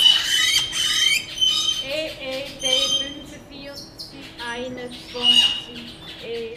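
Blue-crowned laughingthrushes, caught in a trap cage to be briefly examined, call in a busy jumble of high, squawking chirps and harsh notes, fairly loud and continuous, with a steady low hum running underneath.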